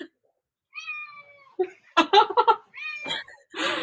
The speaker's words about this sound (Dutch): Dan begint een kat eh, aandacht te vragen.